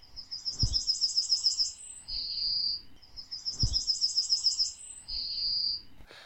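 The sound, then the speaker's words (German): A small seed-eating farmland bird sings a rapid series of high, bright chirps ending in a sustained buzzy trill, repeated twice in the same pattern, clear with no voices. “Erstens singt er sehr schön, kann ich leider nicht nachmachen, aber könnt ihr ja vielleicht äh, nachträglich noch einspielen.”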